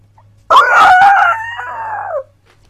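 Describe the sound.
A human voice imitates the screech of a roc, an enormous dragon-like bird: one loud, drawn-out, crowing cry lasting under two seconds, heard alone, its pitch sliding down at the end.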